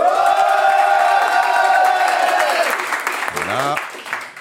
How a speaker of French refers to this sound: on peut entendre le public. Faites du bruit, le public. Faites du bruit, le public, ouais.